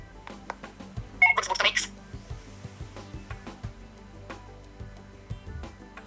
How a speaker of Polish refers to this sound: I teraz, i teraz, jak zapewne było słychać, y, ten, y, to powiadomienie było dosyć y, słabo słyszalne, ale tam był jeszcze taki dźwięk.